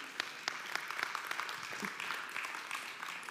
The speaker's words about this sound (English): Yeah, we can clap about that one because